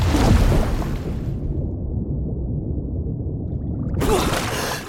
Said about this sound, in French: Oh, mais il y a une grosse vague là Pour passer les vagues, il faut plonger en dessous. Donc je prends ma respiration et je nage sous l'eau.